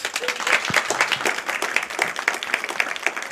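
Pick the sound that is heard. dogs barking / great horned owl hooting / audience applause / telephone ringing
audience applause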